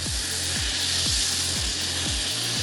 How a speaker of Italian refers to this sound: Il suono che sentite è proprio un soffione boracifero, cioè un'emissione violenta di vapore acqueo ad alta pressione e temperatura che fuoriesce dal suolo e che può essere sfruttato per erogare energia e calore.